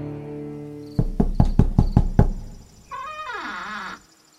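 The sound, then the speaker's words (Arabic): Seven quick, evenly spaced knocks on the wooden door of Brokk's workshop ring out loud over a low hum, followed by a long, wavering creak that bends downward in pitch. “ثم رجع لوكي لصورته الأصلية ووضع نفسه خارج باب ورشة بروك وكأنه عاد من أزغارد كما اتفقا فطرقا على الباب”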